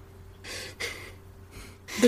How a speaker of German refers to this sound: Und ihr Kopf ist so in meinem Ellenbogen abgelenkt und die ist mhm. komplett am Pennen. Ja, gut. Also hört man sie diesmal in der Aufnahme nicht, wie sie durch mein Zimmer trappelt, sondern wie sie schnarcht.